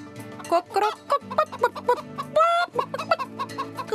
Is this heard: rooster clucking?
yes